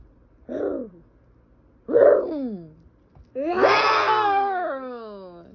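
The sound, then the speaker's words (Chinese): A voice imitates a dinosaur roaring as a curtain is pulled back, three moaning, wailing cries, each louder and longer than the one before, the last a drawn-out, quavering howl. “这个刚刚的这个魔法龙先生呢，他把布帘用力的往后拉，里面的恐龙啊嘶吼一声，一声比一声大。”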